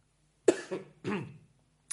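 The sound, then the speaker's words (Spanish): A person coughs several times, harsh throaty bursts in quick succession followed by a brief pause and one short final cough, with no talking. “Se hizo eco, perdón, que tengo que toser”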